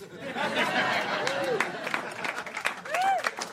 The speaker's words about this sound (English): Thank you. You're right to clap. Um, you should, after that long, incoherent, rambling session, do the same thing you do after someone plays a magnificent cello solo.